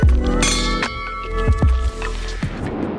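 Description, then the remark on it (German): Wine glasses clink together in a toast on the island of Föhr, several bright taps over about three seconds, each leaving a clear ringing tone that lingers and overlaps. No voices are heard. “Cheers!”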